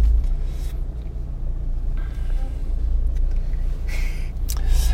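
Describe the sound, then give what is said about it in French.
Steady low rumble inside a moving car with a lawnmower on it, following behind a herd of Aubrac cattle, the engine and road noise droning evenly throughout, with a few faint higher rattles and hisses drifting in over the hum. “Alors on est en train de suivre un troupeau de d'aubrac en voiture avec une tondeuse dessus et, et je dois attendre.”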